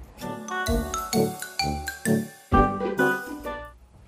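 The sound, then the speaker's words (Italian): A bright, doorbell-like chime rings out in a quick sequence of several ringing notes, each decaying gently, heard clearly with no voices. “Io che sono al campanello, quando vado a editare la puntata, penso che sia il campanello, mentre sto editando la puntata mi alzo.”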